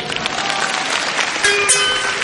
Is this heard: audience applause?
yes